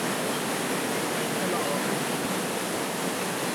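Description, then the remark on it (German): Water rushes and roars steadily over two mill water wheels, whose water level is regulated by sluice gates; a dense, unbroken wash of noise with no clear rhythm. “Also das sind die beiden Wasserräder.”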